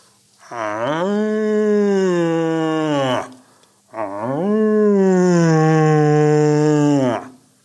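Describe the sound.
Two long, drawn-out bellowing roars, each lasting about three seconds with a brief pause between, loud. A person imitates a red deer stag's roar through a tube, giving a deep, resonant, moaning tone.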